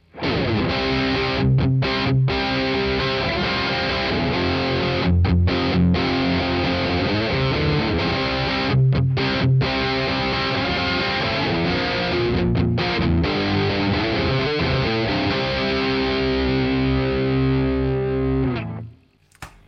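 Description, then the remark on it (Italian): A distorted electric guitar, played through a preset dedicated to hard rock rhythm, chugs through a driving hard rock rhythm, dense and loud throughout, with brief choppy stops between chords before ringing out and cutting off at the end. “per poi passare al preset eh, dedicato alla ritmica hard rock.”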